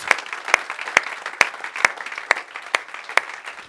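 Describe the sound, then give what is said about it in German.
An audience gives a welcoming round of applause in a dense, steady wash of clapping, with sharper, louder claps standing out at a regular pace about twice a second. No voices are heard. “Wir grüßen dich recht herzlich und wir geben dir jetzt einen wunderbaren Applaus.”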